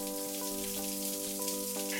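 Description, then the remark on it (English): A shower runs steadily in Edward's bathroom with the door closed, a dense, even hiss of falling water that holds without a break, with a faint tonal hum underneath. “Uh, the showers turn on, and Clem follows you into the shower and kind of just enjoys the steaminess of Edward's bathroom after he's closed the door, just takes it all in.”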